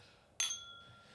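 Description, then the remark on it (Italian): A single bright clink of glasses touching in a toast, sharp at first and then ringing on with a clear fading tone, with no talking. “Sì, allora, eh, questo, cioè, nel senso, salute.”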